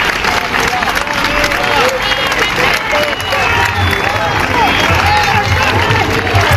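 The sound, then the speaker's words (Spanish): A large crowd of health workers shouting and chanting at a street protest in the Puerta del Sol, Madrid, in November. A dense, loud wash of many overlapping voices with bursts of cheering and clapping is sustained throughout. “son los gritos de los sanitarios que se manifestaron en la Puerta del Sol en Madrid el pasado noviembre.”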